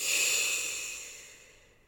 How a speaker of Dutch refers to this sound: Adem je uit, dan ontspant het middenrif zich en heeft het alles weer om zijn oorspronkelijke volume aan te nemen. Het resultaat? Een diepe, rustige, regelmatige ademhaling. Adem diep in en weer uit.